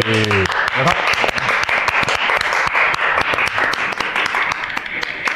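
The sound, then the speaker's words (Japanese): Loud, dense applause from a crowd fills the whole stretch, a steady wash of many overlapping claps, opening with a brief moment of a voice before the clapping takes over. “社会課題持ち込み型ライブトーク番組「ジョインデルハッサン」え今日でなんと100回目迎えました、はい、拍手、”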